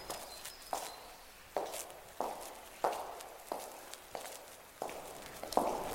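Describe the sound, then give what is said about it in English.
Steady footsteps of a person walking alone down an empty corridor at Hampton Court palace, between the court and the service wing: about nine even strides on a hard floor, each heel strike ringing briefly in the reverberant, otherwise quiet corridor. “I'm walking down an empty corridor.”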